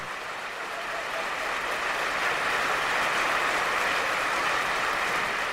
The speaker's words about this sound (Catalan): No s'ha acabat, eh? Simplement a Viena aplaudeixen molt.